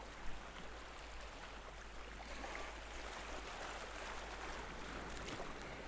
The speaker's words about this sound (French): Seul le crissement des vagues sur le sable. Parfois, le roulement des galets. le bruit d'eau lorsque les flots en serrent un rocher émergé.